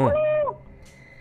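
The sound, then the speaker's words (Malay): A voice imitates a muffled moan, like someone calling for help inside a lift: a single low, sustained hooting tone lasting about half a second, gliding slightly downward before fading into faint background noise. “lepas tu dia bunyi macam pompa minta tolong dia bunyi macam ni hmm.”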